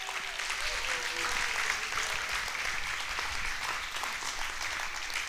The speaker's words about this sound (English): Give the Lord a hand clap of praise.